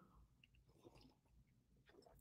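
Someone sips hot coffee, with soft slurping and swallowing mouth noises over a couple of seconds, ending in a brief sharp click. No one speaks.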